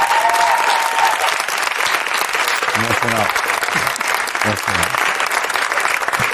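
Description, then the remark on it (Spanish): Loud, steady audience applause fills the whole stretch, a dense wash of clapping with a few voices calling out over it partway through. “con un aplauso más que nunca.”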